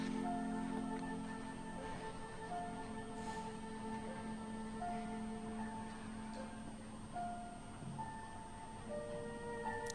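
Quiet, slow music of long sustained tones that shift gently from note to note, calm and minimal, playing in a stage performance without any voices.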